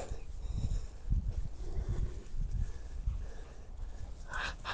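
A dog snuffles and snorts in a series of low, breathy bursts, with a brief higher hiss near the end and no talking.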